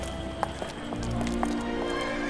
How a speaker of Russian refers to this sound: Повозки запряжены лошадьми, машин не видно.